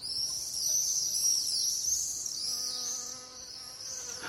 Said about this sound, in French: Le bourdonnement de l'abeille, dit son ami le peintre Benjamin Haydn. le bourdonnement de l'abeille, la vue d'une fleur, le scintillement du soleil semblait le faire vibrer.